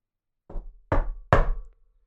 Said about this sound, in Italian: Poi bussa al grande portone in legno.